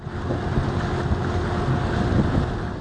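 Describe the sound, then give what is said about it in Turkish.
A sea-cleaning boat in the Gulf of İzmit, Turkey, followed by dolphins, gives a steady engine drone over churning water. Gusts of wind buffet the microphone, continuous throughout. “İzmit Körfezi'nde deniz temizleme aracının peşine takılan bu Yunuslar gibi.”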